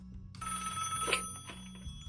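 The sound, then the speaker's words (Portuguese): A telephone rings with a bright, steady electronic trill, its high tones holding for over a second before cutting off, with no one speaking. “Pera aí, vou colocar ele na linha aqui.”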